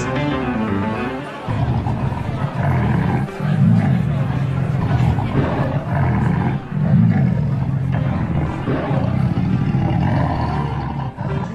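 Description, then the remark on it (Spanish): Lions roar loudly, a deep rumbling series of roars and growls that keeps going for the whole stretch with only brief dips between bursts. “Ahora el rey debe echarlo al foso de los leones.”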